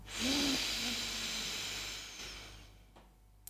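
A long, deep breath drawn in through the nose during a guided breathing exercise, an airy rushing sound that swells quickly and then tapers off over about two seconds, with no talking.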